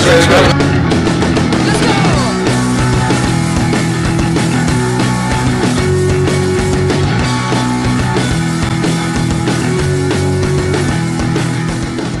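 A live band kicks into a loud, dense set, with pounding drums and sustained guitar and bass filling the space at a steady, full volume throughout.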